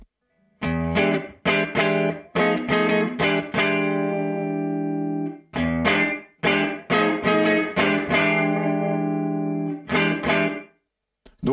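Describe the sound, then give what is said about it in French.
Overdriven electric guitar, played on the neck pickup through a Woodrow amp emulator with the mixing-desk reverb removed, plays choppy, rhythmic chord stabs in two bursts with a brief pause between, fairly loud, with a very short, tight room ambience, as if the mic were moved slightly off the speaker, and no talking. “donc c'est vraiment comme si vous écartiez un tout petit peu le micro de, du, haut-parleur pour capter un petit peu de pièces”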